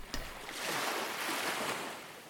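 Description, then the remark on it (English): Soft, gentle waves lap onto the shore of a quiet beach at night in a broad, steady hiss that swells and recedes gently, heard alone with no voices, calm. “The sand feels cool beneath your feet and the sound of the gentle waves lapping at the shore soothes your mind.”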